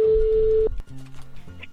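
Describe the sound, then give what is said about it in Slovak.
A steady telephone ringback tone sounds once, a single clear burst lasting under a second, followed by faint voices and low background sound on the line. “No, počkaj, už je tam vytočené číslo, toto si nenecháme iba tak, môj zlatý.”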